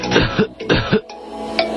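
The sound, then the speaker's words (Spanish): A person who feels a tickle in the throat turns their head and coughs: two forceful coughs in quick succession, each a sharp burst followed by a raspy tail, then a quieter stretch with faint background noise. “al sentir un cosquillo en su garganta, gira su cabeza para toser.”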